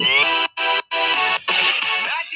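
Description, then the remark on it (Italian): A loud, bright electronic melody plays as intro music for a couple of seconds, its rich tones broken by two brief silent gaps, with no one talking over it. “faremo questo intro con eh, la musica che parte sotto, così ci parlo sopra e non ci rompono le balle col copyright,”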